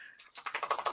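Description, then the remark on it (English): A dog shakes itself off, its collar tags rattling in a quick, bright metallic jingle that lasts about a second, fairly quiet and with no talking over it. “There, oh, I just heard him shake.”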